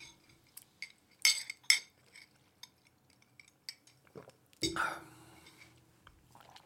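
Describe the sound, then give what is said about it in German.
Glass straws clink against drinking glasses: two bright, ringing taps close together, a few lighter ticks, then a brief rustling clatter, with faint murmuring in the background. “Ich finde, unsere neuen Glasstrohhalme bringen ganz neues Feeling in unserem Podcast.”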